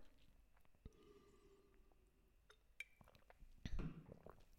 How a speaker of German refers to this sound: Ich muss schnell einen Schluck Wasser nehmen.